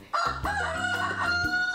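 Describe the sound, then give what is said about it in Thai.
A single loud rooster crow rings out, a strained, drawn-out call lasting nearly two seconds, with no talking around it. “วันนี้นะคะ มีเรื่องของไก่มาเล่าให้ฟังค่ะ”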